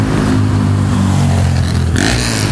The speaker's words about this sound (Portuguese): Eita, a moto passou voando.